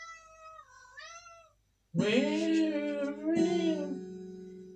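A cat meows in a rising-and-falling whine, then after a short pause lets out two loud, drawn-out wailing meows, with no talking.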